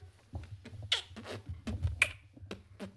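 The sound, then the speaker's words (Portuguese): Sharp mouth clicks and pops from a person beatboxing in an irregular rhythm, fairly quiet, with a low steady rumble underneath and no talking. “Isto também está a som da boca.”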